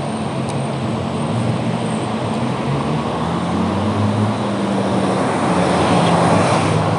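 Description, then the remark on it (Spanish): A steady, loud roar of heavy street traffic in Sants, Barcelona, with low engine hums rising and falling as vehicles pass. No one speaks. “qué cantidad de coches que hay aquí en Barcelona, en Sanz, tío.”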